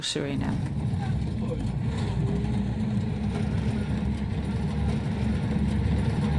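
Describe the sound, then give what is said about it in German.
The engine of a rusty old bus drones steadily with a deep, rumbling low end as it drives for four hours on a rough track through the rainforest towards Brownsberg, the constant noise of a big old motor working hard, loud throughout without pause. “Mit einem rostigen alten Bus fahren wir auf einer schwierigen Piste durch den Regenwald.”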